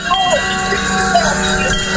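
Many bells, including a doorbell, are rung together on a radio broadcast for the Olympics in a dense, continuous jangle, their overlapping metallic tones filling the whole stretch without pause, loud with a busy clamor.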